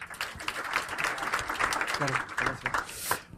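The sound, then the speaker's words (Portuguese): Sustained audience applause, a dense crackle of many hands clapping at once, steady and fairly loud for a few seconds, with a few voices faintly mixed in. “Pedia só uma salva de palmas.”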